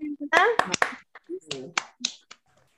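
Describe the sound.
Scattered applause over a video call for a musical performer, participants unmuting their microphones to clap: a handful of sharp, irregular claps, some in quick bunches, mixed with brief voiced sounds and short pauses between them.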